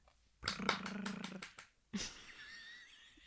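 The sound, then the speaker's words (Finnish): An improvised drum roll of rapid, slapping patters runs for just over a second, pauses briefly, then ends in one sharp closing hit with a faint ringing tail, fairly loud. “Se kuulostaa vähän lätinältä aika rumpujen pärinää”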